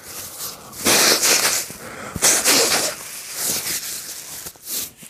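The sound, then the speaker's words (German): Several breathy bursts of hissing air, from nasal spray puffed into the nostrils and forceful nose blowing, come in uneven pulses of a second or so, with short pauses between them and no talking. “wenn ich, wenn ich mir Nasenspray in die äh, Nasenlöcher ähm, puste und mich schneuze und huste und solche Dinge mache und Grusch und Kram.”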